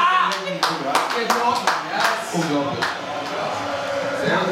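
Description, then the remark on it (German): A lone Union fan claps a handful of sharp, irregular times at the end of a football match against Hertha, while indistinct voices murmur underneath. “Aber es hat auch einen Taner geklatscht.”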